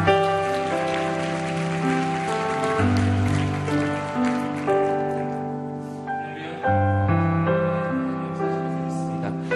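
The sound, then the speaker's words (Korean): A church audience applauds to welcome a pastor coming forward to preach, a steady, dense, crackling wash of clapping, underneath loud sustained keyboard chords that shift twice; no one speaks. “나오실 때 우리 큰 박수로 환영하도록 하겠습니다.”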